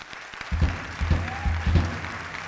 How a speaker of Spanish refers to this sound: Un fort aplaudiment per l'… al piano,